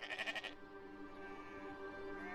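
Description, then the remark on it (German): A sheep bleats once: a wavering, quavering opening that settles into a long, drawn-out nasal cry lasting a couple of seconds, with no one speaking. “Schwarze Schafe zum Beispiel.”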